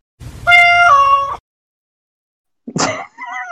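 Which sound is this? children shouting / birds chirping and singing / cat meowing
cat meowing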